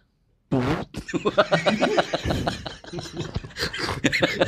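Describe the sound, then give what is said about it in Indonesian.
Several people make loud, sputtering fart noises together on a count of three, raspy and buzzy bursts overlapping for a few seconds, mixed with snickers and laughter; the sounds appear to be voiced imitations. “Yuk, barangnya kentut yuk.”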